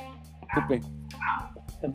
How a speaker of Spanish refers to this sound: Oigan, es que ahí, ahí el, perro nos quiere dar la opinión también. Yo creo que no está muy contento. Sí, es que tenemos aquí un perro que es bastante escandaloso.